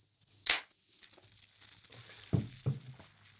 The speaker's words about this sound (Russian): Это звук, когда пластинку поставили. Да, да, да. Шуршание такое, да, когда ее не до конца вытер от пыли.